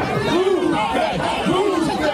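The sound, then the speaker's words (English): A large crowd of disappointed Eagles fans shouts and yells outdoors at City Hall in Philadelphia, throwing traffic cones and climbing bus shelters: a dense, continuous roar of many voices with rising, chant-like cries swelling over the steady din. “In Philadelphia, disappointed Eagles fans converged on City Hall, throwing traffic cones and climbing bus shelters.”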